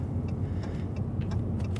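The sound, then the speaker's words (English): A car engine hums with a steady, low rumble as the vehicle slowly pulls up to a spot with many other cars, heard from inside, with a few faint clicks over the drone and no one talking. “We're pulling up. There's a lot of cars here.”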